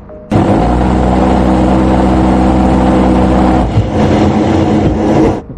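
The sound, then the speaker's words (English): A loud, continuous burst of rapid gunfire from an A-10 attack jet's gun, a deep buzzing roar lasting about three seconds, followed by a rolling rumble as it echoes across the sky. “Uh, you hear at first when it fires, and then you hear it echo from the gun in the sky.”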